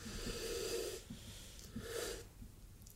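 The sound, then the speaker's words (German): Two breathy, explosive sneezes about a second apart, each a rough burst of air with a nasal, wheezy edge, moderately loud and with no talking around them. “Gesundheit.”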